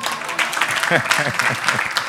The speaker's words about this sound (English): everybody clap for dɔki